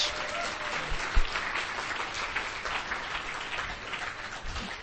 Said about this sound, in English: and let's all give her a round of applause because she did so much.